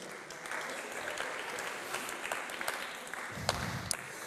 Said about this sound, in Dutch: Ja, applaus voor jezelf.